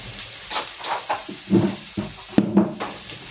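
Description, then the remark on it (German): Meatballs are browned in a coated (nonstick) frying pan on a stove with no added oil, sizzling steadily with a crackling hiss, occasional louder pops and scraping clatters as they're moved around. “wir braten jetzt hier unsere Fleischklößchen an”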